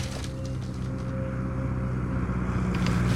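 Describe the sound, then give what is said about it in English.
A steady, droning airplane engine passes overhead as a company plane comes in to land, a low humming rumble with a few sustained tones that holds at an even, moderate loudness throughout, with no voices. “Is that a plane?”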